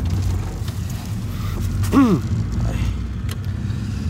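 A car's engine rumbles steadily and low throughout, as if the vehicle is pulling away and driving, with a brief descending whine cutting through near the middle.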